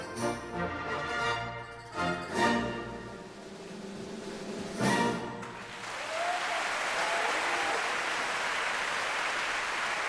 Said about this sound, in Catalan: Quina ovació, Anna. Has vist? Molt bé, la gent, la gent Has vist? et reconeix la feina.